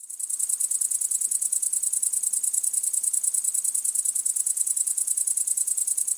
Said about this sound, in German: Und dann kommt später als Klassiker, kommt im gesamten Stadtgebiet schon im bisschen früheren Sommer das große grüne Heupferd.